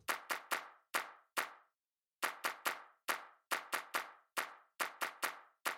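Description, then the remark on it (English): Crisp layered hand-clap samples play on their own in a syncopated pattern, bursts of three quick claps followed by a single one, each with a short bright decay, after one brief pause. “it up a couple of extra bits with these little claps.”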